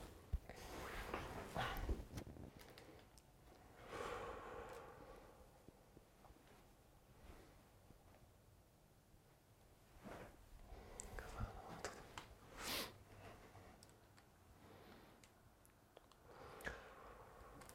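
Three slow, deep breaths drawn in and let out as a breathing exercise, airy swells spaced several seconds apart with quiet pauses between and no talking.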